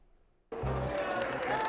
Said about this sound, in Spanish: Fuerte el aplauso de inauguración de esta Feria Nacional de la Juventud para la Inclusión Laboral de todos nuestros jóvenes aquí en Ciudad de México